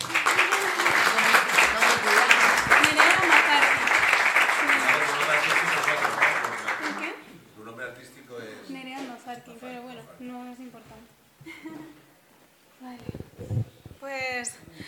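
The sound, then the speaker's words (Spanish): Loud, sustained audience applause at an event, for a woman called up to speak, fills the first seven seconds with dense clapping, then fades out as a person begins speaking alone. “Pido un fuerte aplauso para ella.”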